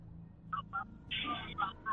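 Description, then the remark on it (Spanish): A phone line dialing while the phone searches for a signal: a few short electronic beeps and tones in an uneven sequence, fairly clear over a steady low background hum. “Busca, busca señal, yo no sé si es el Bluetooth, coge el teléfono.”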